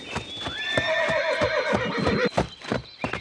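A pony named Mystery gives a long, wavering whinny that slides down in pitch, greeting its friend Sternenschweif, while steady clip-clopping hoofbeats sound through it and carry on after the neigh fades.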